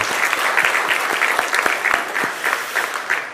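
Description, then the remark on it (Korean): An audience breaks into sustained applause to encourage mothers raising children alone, a dense wash of many hands clapping steadily for several seconds with sharp individual claps popping out of the texture, with no voices heard over it. “아버지의 목까지 하시기 때문에 그런 어머니들이 있다면 그런 어머니들을 위하여서도 우리 큰 박수로 격려하십니다.”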